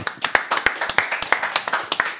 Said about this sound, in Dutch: Dames en heren, de handjes op elkaar. Voor de ventilator des vaderlands, Maries de Hond.